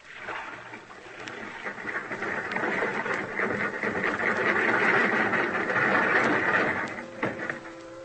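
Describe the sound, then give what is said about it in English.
A steady mechanical whirring and grinding swells over several seconds as a crane boom, worked by an engineer, lowers a car recovered from a river, with faint clanks and a brief tonal whine near the end. “Hey, engineer, lower the boom.”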